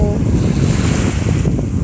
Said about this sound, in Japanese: あとは波の音を聞いてああいいわって思っていた感じですねちょっとだけやっぱ風が強いから今日は波がザブザブいつもよりしてる気がします騒がしい感じです